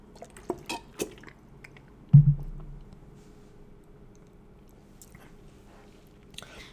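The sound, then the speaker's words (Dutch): Someone takes a sip of water, with small wet mouth clicks and a swallow, a soft low thump partway through, then quiet breathing and faint rustles. “Alright, ik neem even een slokje water.”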